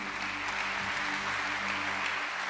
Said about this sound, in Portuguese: Se você crê, diga amém. Aplauda o Senhor porque ele é bom.